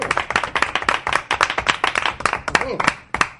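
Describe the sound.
A small crowd applauds, with dense, steady hand claps filling the whole moment, fairly loud, and a few faint voices mixed in beneath the clapping.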